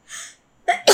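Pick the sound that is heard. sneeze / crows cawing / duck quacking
sneeze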